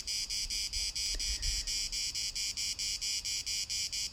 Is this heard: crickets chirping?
yes